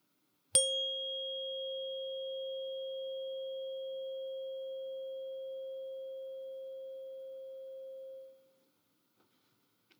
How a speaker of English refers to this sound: One of the gifts that I received from my mom has to do with sound and vibration. It was a tuning fork but just not any tuning fork. Give it a listen.